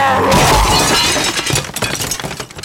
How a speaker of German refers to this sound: stürzte die Deckenlampe zu Boden und das Gespenst mit ihr.